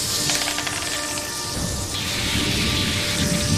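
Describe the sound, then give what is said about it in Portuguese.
A rain sound effect: steady rain hisses evenly throughout, a dense wash of falling drops at constant loudness, with a faint low rumble and a thin sustained tone humming beneath it. “Então, porque já tá chovendo, né?”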